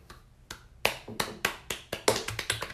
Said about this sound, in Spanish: Un aplauso para nuestro Puerto Rico.